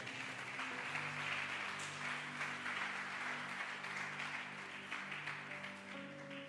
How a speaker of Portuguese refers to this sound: Aplauda ele bem forte.